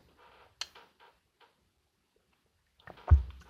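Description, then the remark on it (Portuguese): Quiet sips and gulps of drinking water, a short run of soft wet clicks followed after a pause by a louder swallow with a low thud. No one speaks. “Eu não sei se o som capta eu engolindo a água.”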